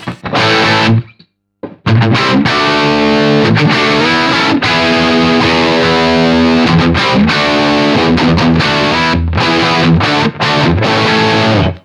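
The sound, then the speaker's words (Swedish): A heavily distorted electric guitar plays loud sustained chords and riffs through a UA Lion amp, with a gritty, buzzing saturated tone and a brief silent gap near the start. No one speaks. “#361 - UA LION test”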